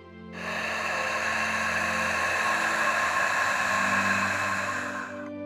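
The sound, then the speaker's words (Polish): A long, steady hissing exhale of ujjayi breathing through a gently narrowed throat, continuous for about five seconds, with a soft oceanic rasp and no talking. “Na początku może to być odrobinę wymagające, ale postaraj się maksymalnie skoncentrować na swoim gardle, delikatnie zwężając je podczas wdechu i wydechu.”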